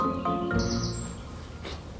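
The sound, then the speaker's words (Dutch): Birds chirping outdoors behind the speaker, a few short high tweets and trills scattered over a steady background hum, fairly soft, with no one talking. “Vooral vogels achter mij nu, dat is ook stoem.”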